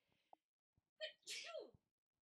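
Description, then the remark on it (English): A single loud sneeze with a sharp inhaled build-up and a bursting release, following a brief quiet pause after some soft sounds. “bless me, I was going to hit pause and then I was like, nah, we're just going to sneeze here.”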